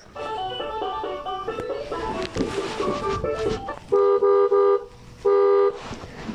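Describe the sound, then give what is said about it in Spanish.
Electronic sounds from a toy car whose buttons are being accidentally pressed by someone's feet: a jumble of bright synthetic tones and effects, then two loud, steady beeping horn-like blasts, with no talking. “Perdón, es el carro de mi hermana que le aplasté porque lo tengo aquí en los pies y le estoy aplastando a los botones.”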